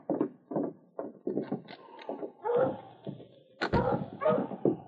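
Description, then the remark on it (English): A husky sled dog team, led by King, barks and yelps excitedly outside, with rapid overlapping barks and a few whines in a busy, continuous chorus. “I have my dog team outside.”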